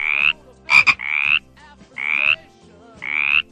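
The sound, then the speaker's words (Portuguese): A frog croaks in loud, buzzy bursts, four drawn-out calls spaced at a steady rhythm with a sharper double croak among them, with no voices present. “Que som de batraco é este?”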